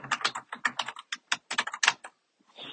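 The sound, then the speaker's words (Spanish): Rapid typing on a computer keyboard while searching for the Spanish translation of a word, a quick burst of crisp clacking keystrokes, ending in a brief pause and a soft rustle. “y si escuchan es porque estoy buscando literal la traducción eh, en español”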